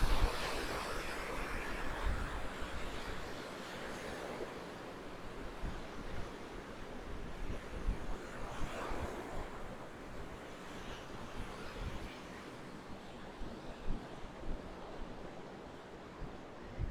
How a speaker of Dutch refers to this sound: Oh, ja, want jullie eh, eh, als luisteraars horen jullie misschien de zee of wel. We zullen heel even stil zijn. Dat je het geluid kan horen.